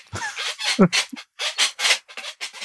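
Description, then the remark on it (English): A chair squeaks and creaks in a quick run of short, raspy bursts, with one brief higher-pitched squeak partway through and no talking. “Not only the nervous ticks, but jewelry, jackets, scratching your beard, squeaky chairs, all these can be picked up in the microphone as well.”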